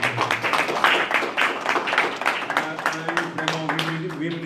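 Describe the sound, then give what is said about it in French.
An audience claps steadily for several seconds after a debate, a dense wash of applause with some voices murmuring and calling out underneath. “Moi, je demande juste des applaudissements pour ça.”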